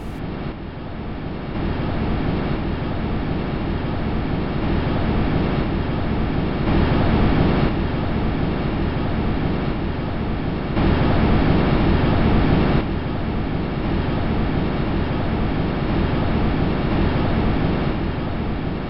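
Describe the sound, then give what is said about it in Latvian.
A steady, unbroken rush of wind roaring past a probe descending to Saturn's moon Titan, recorded in 2005, a dense whooshing hiss that swells and eases slightly in waves over about nineteen seconds, with no voices. “Pirmā reize bija 2005. gadā, kad tika ierakstīta vēja šalkoņa zondē nolaižoties uz Saturna pavadoņa Titāna.”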